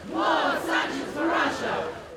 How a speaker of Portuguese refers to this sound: Milhares de pessoas tomaram as ruas em várias partes do mundo para protestar contra a invasão russa à Ucrânia. Uma multidão percorreu as principais avenidas de Londres, na Inglaterra, gritando palavras de ordem contra o governo russo.